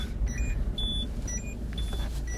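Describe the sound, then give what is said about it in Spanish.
A car's seatbelt warning chime beeps in short, evenly spaced electronic tones because the driver's seatbelt is not fastened, over the low, steady rumble of the idling engine inside the vehicle, on a dirt road at the outskirts of a town. No one speaks. “Ahora me lo pongo para que no suene.”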